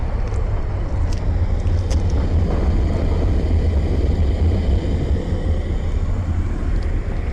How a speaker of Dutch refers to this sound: Het gas komt uit een, eh, uit een tank, gaat met een slang naar het vat en voor het vat staat die brander. Die blaast er keihard vuur in.